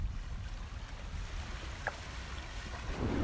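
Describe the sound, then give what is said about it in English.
Steady outdoor ambience by the water at Jamaica Bay Wildlife Refuge in New York City, with a constant low rumble of wind and surf, a faint brief chirp midway, and no voices. “I'm going to leave you today with a little snippet of my visit to Jamaica Bay Wildlife Refuge”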